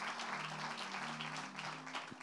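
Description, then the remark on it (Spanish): A crowd claps loudly and steadily, a dense, continuous wash of many hands applauding throughout, with no voices standing out. “Le dan un fuerte aplauso.”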